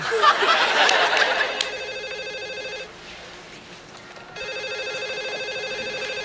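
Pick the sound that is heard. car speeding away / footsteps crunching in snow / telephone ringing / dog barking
telephone ringing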